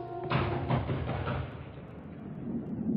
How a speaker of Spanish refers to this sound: Llama a la puerta.